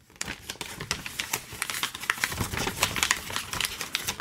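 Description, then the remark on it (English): Steady crinkling and rustling of paper being folded and creased to make a paper boat, the bottom of the sheet folded up to meet the crease made by the top corners, with a dense run of small crisp crackles lasting a few seconds and no voices. “Once you've done that, fold the bottom of the paper up to meet the new crease created by the top corners.”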